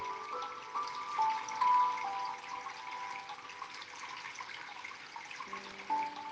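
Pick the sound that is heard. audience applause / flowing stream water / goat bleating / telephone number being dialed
flowing stream water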